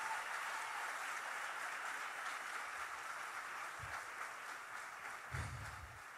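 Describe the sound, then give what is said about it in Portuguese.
An audience applauds the Lord for the power of the blood of Jesus, clapping steadily throughout, a dense, continuous patter of many hands at an even level, with a couple of brief low thumps near the end and no voices. “Quem pode aplaudir o Senhor pelo poder do sangue de Jesus?”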